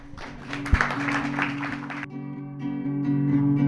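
A crowd claps for about two seconds over a steady musical tone; the clapping cuts off abruptly and the music carries on alone.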